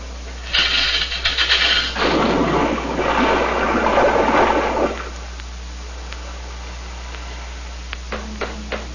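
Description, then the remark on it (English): A ship's anchors are let go: a loud, harsh rush of rattling anchor chain and splashing water runs for several seconds, then fades into a low hum with a few scattered clanks near the end. “Let go the anchors, Mr.”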